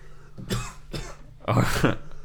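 A harsh coughing fit after choking while drinking: two quick coughs followed by a longer, louder, rasping burst, with no talking in between.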